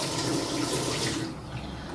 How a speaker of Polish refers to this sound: dodam jeszcze dwie szklanki wody bo tak jak mówiłam, nie jest to taki gulasz po prostu z sosem, tylko jest to taka raczej gęsta paprykowa zupa. Może dać ciut więcej niż te dwie szklanki, bo ta woda oczywiście też się wygotuje.